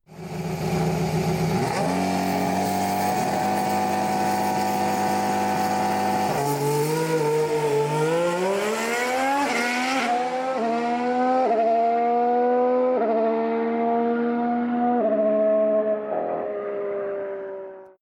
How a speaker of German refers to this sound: Einen kleinen Vorgeschmack habe ich jetzt schon für euch. So nämlich klingt es, wenn ein Ferrari mit der aktuellen Ausbaustufe den großen Preis von Mugello startet.